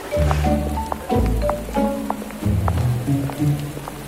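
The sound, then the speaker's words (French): Steady summer rain in the pedestrian streets of Louvain-la-Neuve patters on a hard surface, with scattered drips and splashes over a low, continuous rumble, while faint tonal sounds drift in and out beneath it. “La pluie de ce magnifique été nous a poussés vers un café”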